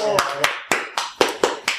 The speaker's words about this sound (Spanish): Eh, peticiones de Pirata Caletero un aplauso.